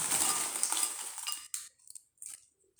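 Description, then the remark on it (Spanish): Busy clatter and scraping of utensils against dishes while churros are served, then quieter, with a few short scattered clinks. No one speaks. “sirviendo churro por si escuchan un ruido.”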